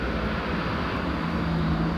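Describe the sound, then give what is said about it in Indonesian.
Deep, steady engine rumble from a truck rolling past on a busy main road beside a rented house, loud and continuous with a droning low hum and no voices. “sorry ke distract sama suara truk ya di di kontrakan emang rame sih dekat jalan raya soalnya”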